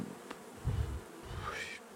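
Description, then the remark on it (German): A bee buzzes, its drone swelling and fading with a rising, whining pitch as it flies around. No voices are heard. “Ihr mögt Bienen?”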